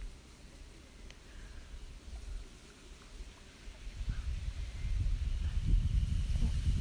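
Steady low rumble of wind with water lapping at the shoreline of Lake Shikaribetsu, growing louder and fuller in the second half. No voices, just continuous outdoor ambience.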